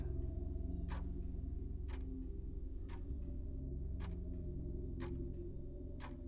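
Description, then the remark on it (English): A clock ticks steadily, about once per second, each tick a crisp click over a constant low hum, with no voices present. “And then for a moment, all is still, and all is silent save the voice of the clock.”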